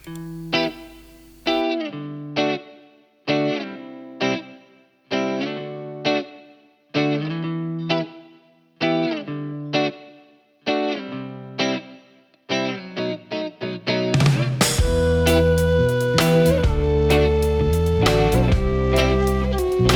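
A rock song by a band from Haute-Saône, France, taken from their first album, released in 2018. It opens with loud, distorted electric guitar chords struck in short stop-start bursts, then the full band crashes in with a sustained, driving wall of sound. No voices are heard.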